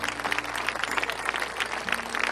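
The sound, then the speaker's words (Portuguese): A short applause sound effect: clapping from a small crowd, dense and steady with many overlapping hand claps, fairly quiet throughout and with no voices over it. “Palmas para as mamães econômicas.”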